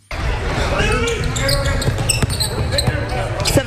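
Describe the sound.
Basketballs bounce repeatedly on a hard court in a large, echoing gym, with sharp thuds and sneaker squeaks over a steady murmur of voices and crowd noise.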